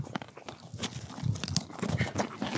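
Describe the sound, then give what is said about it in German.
A donkey or pony chews and smacks in the Wentorfer Lohe, where two donkeys and a Shetland pony stand, with repeated crunchy bites and wet mouth sounds in an irregular rhythm, fairly loud and with no talking. “Ich sage vielen Dank fürs Zuhören, während hier weiter geschmatzt wird.”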